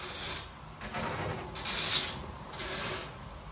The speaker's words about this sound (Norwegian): Hører du det? Er det noen som pakker en julegave, eller? Ja, eller jeg tenkte, jeg tenkte i senga. Det er noen som teiper et eller annet, men jeg tenker jo sånn Er det noen som teiper et lik til gulvet der oppe?